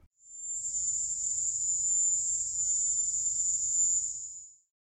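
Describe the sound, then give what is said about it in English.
A West Indies cricket's mating call: a shrill, steady, high-pitched trill held unbroken for about four seconds, fairly loud, over a faint low rumble and with no voices. “a sound that seemed suspiciously similar to the high pitched cry of the Cuban cicada, or, as later analysis suggested, the mating call of a West Indies cricket.”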